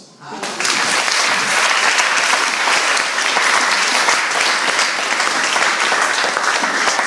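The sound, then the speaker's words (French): Loud, sustained applause from a large audience at a Christian sermon, breaking out after a brief quiet start and continuing densely and evenly throughout. “Tonnerre d'applaudissements.”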